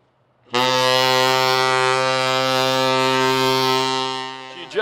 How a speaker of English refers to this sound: Now hear this, now hear this. We'll be testing the ship's whistle. We'll be testing the ship's whistle. That is all.